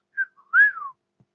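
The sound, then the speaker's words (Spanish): A person whistles a short birdsong imitation: a brief high chirp, a faint blip, then a longer sweeping note that rises and falls away, all alone with no talking. “Los pájaros se posaban en los árboles y cantaban con dulzura.”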